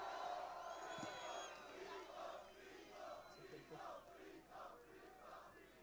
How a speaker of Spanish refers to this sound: Vamos a dar una bulla fuerte, por favor, por la batalla. Bulla, bulla, bulla, bulla, bulla.